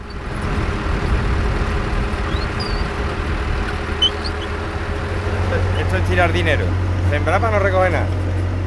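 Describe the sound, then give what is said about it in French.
A tractor engine runs steadily in farm fields at El Trobal, Los Palacios y Villafranca, south of Seville, Spain, while its driver works the land: a loud, deep continuous rumble that settles into a lower drone partway through, with brief warbling higher sounds over it near the end. “Au volant de son tracteur, le gendre de José Manuel Miranda Aguilar travaille sans trop savoir pourquoi”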